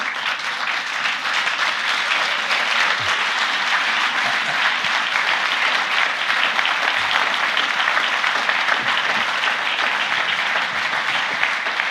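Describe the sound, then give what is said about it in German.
Steady, sustained applause from an audience as two RBB journalists are invited up to the stage, a dense wash of many hands clapping at an even loudness for about twelve seconds with no voices on top. “Weil Klau muss kurz einen, äh, den Spruch eines Kollegen klauen, irgendwie bei Bühnenmoderation, das immer heißt, es ist immer gut, wenn der Applaus irgendwie bis, äh, sag ich mal, zur Bühne trägt.”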